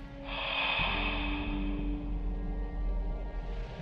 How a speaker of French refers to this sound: Au bout du fil, personne. Enfin, si. Quelque chose. Une respiration forte, insistante, qui dure jusqu'à ce qu'elle décide de raccrocher.